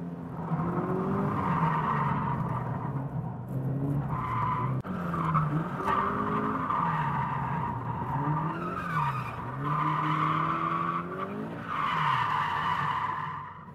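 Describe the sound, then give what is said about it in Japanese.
A nearly stock Subaru BRZ drifts with loud, sustained tire squeal over a revving engine whose pitch rises and falls with throttle changes, with no talking throughout. “まずはほぼノーマルのBRZでドリフトにチャレンジ”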